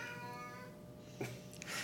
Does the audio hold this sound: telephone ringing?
no